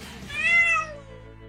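A single cat meow, a bright, drawn-out cry that swells and then slides downward in pitch before trailing off. No one speaks over it.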